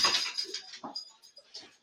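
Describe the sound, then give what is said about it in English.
A dog whimpers softly in a few brief, high-pitched whines and snuffly bursts, fairly quiet, with no one talking. “i tell you what, this dog gonna get his ass whipped here shortly.”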